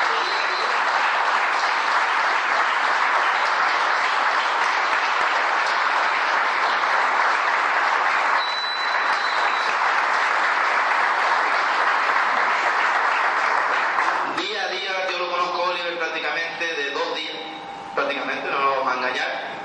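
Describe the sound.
A crowd claps steadily in loud, dense applause for about fourteen seconds, then the clapping stops and a man begins speaking.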